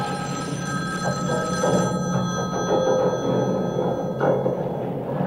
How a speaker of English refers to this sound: Your phone's ringing.